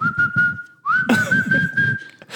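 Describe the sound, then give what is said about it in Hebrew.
A soldier on an army base whistles at someone as if calling a dog: a long, steady, high note, then a brief slide up into a slightly higher held tone, with low rhythmic murmuring underneath. “וכל פעם שהייתי הולך בבסיס והחייל הזה היה רואה אותי, הוא היה שורק לי. הוא היה עושה ככה.”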